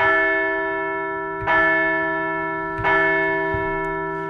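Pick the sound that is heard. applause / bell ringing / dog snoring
bell ringing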